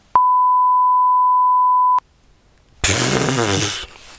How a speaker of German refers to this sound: Hör auf mit so einer Scheiße. Das piepen wir raus